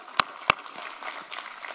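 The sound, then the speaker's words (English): Two sharp hand claps ring out in quick succession as a preacher applauds during a sermon, followed by a faint, scattered patter of applause in the background. “I'm going to applaud on that.”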